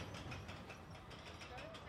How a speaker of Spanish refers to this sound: El carrito escala la estructura de madera y metal y se acerca lentamente a la cumbre.